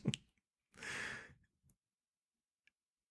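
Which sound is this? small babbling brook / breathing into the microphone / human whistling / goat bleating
breathing into the microphone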